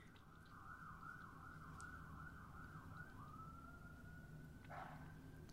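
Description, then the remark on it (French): An emergency vehicle siren passes, its warbling wail rising and falling before settling into a steady high tone, heard above a constant low rumble of road traffic with no one speaking. “Je laisse passer la sirène.”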